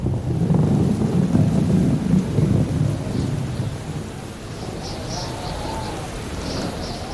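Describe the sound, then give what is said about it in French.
Heavy rain and gusting wind roar together in a dense, rumbling wash at night in the port of New York in April 1912, loudest at first, then settling into a steady downpour with faint higher whistles of wind. “Il pleut, le vent fouette les visages.”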